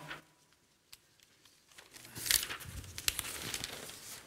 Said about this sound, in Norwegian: Nå skal jeg bla om.